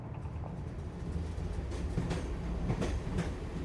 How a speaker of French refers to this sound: l'homme prend le RER